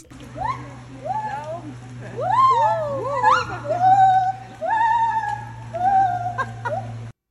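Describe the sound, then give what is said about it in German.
A howler monkey calls in a run of loud, wavering wails and drawn-out moaning tones, one cry after another, continuous, over a steady low hum in the background. “Ja, damit, damit ihr wisst, wie sich ein Brüllaffe anhört, haben wir da einen kurzen Outtake davon.”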